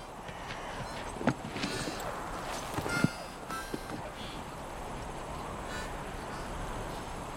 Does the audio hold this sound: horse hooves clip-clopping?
yes